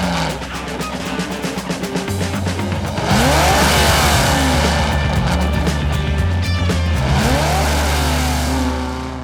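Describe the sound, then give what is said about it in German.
A loud race car engine revs hard and roars, with rising and falling pitch sweeps as it accelerates and passes, staying intense throughout with no talking. “Jetzt stellt sich mal einer vor, das wäre der teuerste Rennwagen der ganzen Welt.”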